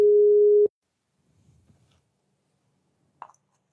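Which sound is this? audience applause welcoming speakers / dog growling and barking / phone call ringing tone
phone call ringing tone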